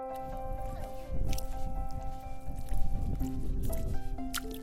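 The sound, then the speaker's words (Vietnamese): Wet, squelching steps of bare feet sinking into soft tidal mud and sand as people walk barefoot across a coastal mudflat toward the sea on the Minmoru coast, several irregular squishes, with steady background music humming underneath. “Ai cũng cỡ dài và thử bước chân trần trên nền bùn cát.”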